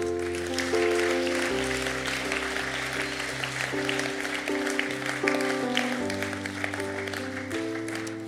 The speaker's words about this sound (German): Hey, lasst uns Gott mal einen riesen Applaus geben.